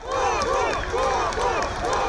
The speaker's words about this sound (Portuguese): Na saída, aplausos.